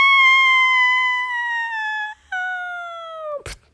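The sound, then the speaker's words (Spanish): A voice imitates the anguished howl of the wolf in the three little pigs tale, burned by a fire in the chimney: one long, loud, high wail slowly sliding downward, a brief break, then a shorter falling cry, cut off by a sharp burst of noise. “Pusieron fuego para que el lobo se quemara el poto y saliera gritando.”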